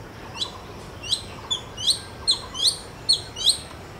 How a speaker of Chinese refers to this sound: 它们会在住家附近的公园里面筑巢繁殖，所以搞不好啊，各位朋友哪一天在住家附近的公园，就可以看到凤头苍鹰呢，在树枝之间睁着黄色的大眼盯着你看哦。下一次啊，听到了这个叫声。